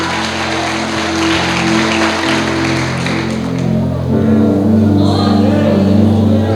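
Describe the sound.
An audience applauds in a dense, steady wash of clapping lasting several seconds, with a sustained low tonal hum underneath and indistinct crowd voices mixed in.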